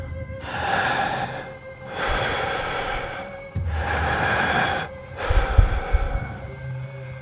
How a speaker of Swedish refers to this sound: Hon fattar dina händer och som vanligt ber dig sluta ögonen och fokusera på hennes andning. Hon andas tungt.